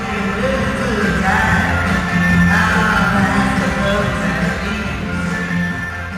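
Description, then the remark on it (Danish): A large concert crowd roars with sustained applause and cheering as a singer steps onto the stage, a dense, loud wash of clapping and shouts that stays steady for several seconds before easing slightly at the end. “… træder ind på scenen, og bifaldet slår ham i møde.”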